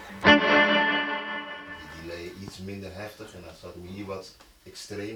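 An electric guitar chord rings out loud through a clean booster pedal placed at the end of the effects chain, its sustain washing into a long reverb tail, followed by a run of shorter, gritty notes.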